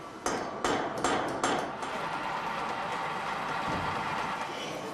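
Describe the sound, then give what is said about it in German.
Metalworking noise in a training workshop at Audi in Ingolstadt, where milling, turning, drilling and filing are done: four sharp hammer-like metallic strikes in quick succession, then a steady mechanical whir of machinery continuing, with no talking. “Hier, wo Autos für die Welt produziert werden, gibt es natürlich auch eine eigene Lehrwerkstatt, wo gefräst, gedreht, gebohrt und gefeilt wird.”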